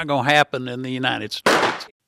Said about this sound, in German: Schön noch der Schuss zum Schluss.